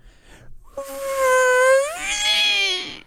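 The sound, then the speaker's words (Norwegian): A voice imitates a car driving up and skidding: a sustained, whiny tone that swells and bends upward in pitch for about two seconds before cutting off, with no other sounds. “Ok, En bil som kommer kjørende og sladdende.”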